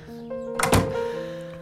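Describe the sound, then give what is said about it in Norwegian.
A single solid thump of a door being shut, fairly loud, landing once over a soft, steady background of sustained tones. “Ja, lukk døra bak deg.”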